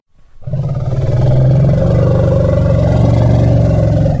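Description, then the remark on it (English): A deep, throaty rumble from a mother animal protecting her baby, loud and sustained for about four seconds with a steady, vibrating growl quality, an angry warning to stay away. No one speaks. “Yeah, there's uh, one of the sounds in there is mama rumble.”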